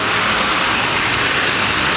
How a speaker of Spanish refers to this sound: Madre mía, los coches, eh. Los coches estos son. el andar este solo se puede hacer de Benimacleta hacia afuera. Es que las ciudades son horribles. Muchísimo coche, sí.